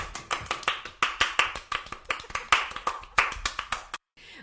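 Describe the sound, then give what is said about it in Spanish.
Rapid hand clapping in Hollywood, California, a steady run of about twenty sharp, bright claps over four seconds, fairly loud, with no talking, then cutting off abruptly into silence. “Aplaudimos.”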